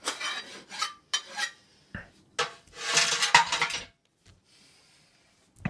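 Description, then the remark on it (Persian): In a scene from the film There Will Be Blood, a man chips and scrapes at the wall of a well: short gritty strikes in irregular bursts, then a longer grinding scrape with crumbling bits as the wall breaks, before the activity trails off into near silence. “دوباره شروع میکنه دیوار کندن آها حالا داره یکم میکنه صدای خورد شدن دوربین دوربینی پن کوچیکی میکنه و میبینیم که دیواره داره میشکنه”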